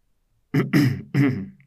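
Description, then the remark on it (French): Three harsh coughs in quick succession, the first short and the next two fuller and raspier, with no talking around them. “Humiliée de s'être laissée surprendre à préparer un mensonge aussi naïf, elle avait toussé deux ou trois fois pour mettre le petit prince dans son tort.”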